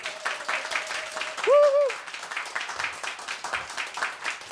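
Steady applause from a studio audience at local radio station Radio Totanamal, Götgatan 38, Stockholm, fills the whole stretch, a dense crackle of many hands clapping, with a brief arching whistle-like tone rising and falling midway through.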